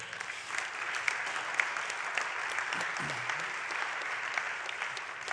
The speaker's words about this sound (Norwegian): Så uh, det er helt riktig. Gi det en klapp til.